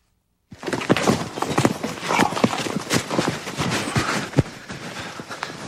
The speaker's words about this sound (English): I'm going to show a clip of him breaking a, a, wild horse in Australia